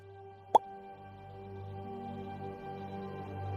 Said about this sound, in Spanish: Gotas cayendo. El grifo está malo.